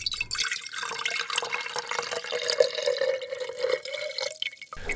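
Water pours steadily into a glass for several seconds, a continuous splashing stream whose pitch slowly rises as the glass fills; no one speaks.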